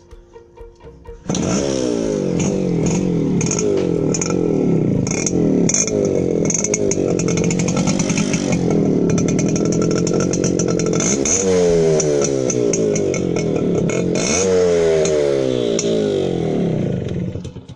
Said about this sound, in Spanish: Yo opino que el motor 2T es algo único, nada ¿no? se compara con un motor común 4T. Es un motor que, que tiene mucha fuerza la moto. Más revoluciones